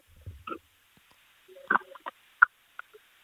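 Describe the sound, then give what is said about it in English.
Wet gulping sounds as a man swallows a very cold beer, a handful of throaty glugs and gurgles in an uneven rhythm, with brief quiet pauses between swallows. “oh, it's going down the gullet.”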